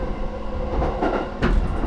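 Steady rumble of a Yamanote line commuter train in Tokyo in motion, heard from inside the carriage as it approaches Meguro station, with a dense low roar and occasional rattling bursts from the wheels and car body.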